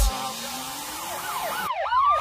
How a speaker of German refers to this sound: Sirenen heulen blaulicht hinter mir.